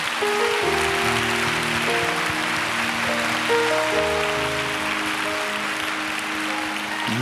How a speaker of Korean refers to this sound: 우리 한 번 더 하나님께 감사 영광의 박수 한번 올려드릴까요?